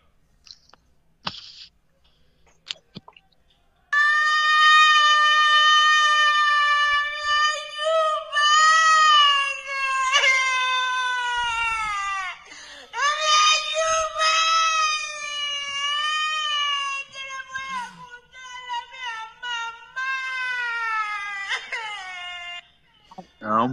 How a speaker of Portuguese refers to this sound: Ah, uma, uma mumina lambe a cara dele, ele juro por Deus, esse é o grito dele, é no vídeo aqui, ó.